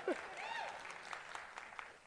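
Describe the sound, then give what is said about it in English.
A scattered round of clapping from the women in the audience, soft and uneven, with a brief high vocal whoop at the start before the claps settle into a steady patter. “All the women, you can clap there anytime, all right?”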